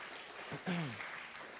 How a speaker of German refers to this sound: Danke, Jesus. Lass uns Jesus mal einen dicken Applaus geben.